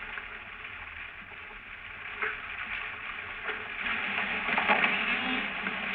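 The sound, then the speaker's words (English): Single fish sounds recorded underwater for the Navy, a rock cod and a flounder: a few isolated knocks and short grunts standing out from a steady, hissing watery background. “There is a rock cod. That's a flounder.”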